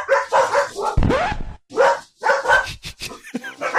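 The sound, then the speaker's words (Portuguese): A dog barks repeatedly in a studio in short, sharp bursts, fairly loud, with a brief yelp among the barks and a few higher whining yips near the end. “Tem uma coisa que é importante: tirar os cachorros do estúdio.”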